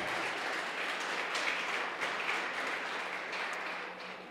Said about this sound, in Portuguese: Você pode aplaudir o nome do Deus eterno.